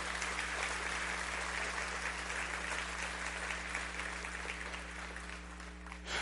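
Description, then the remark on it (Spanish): A large audience applauds the new believers steadily for several seconds, a dense wash of clapping with a low hum beneath it, fading slightly near the end. “Le damos un fuerte aplauso a los nuevos creyentes.”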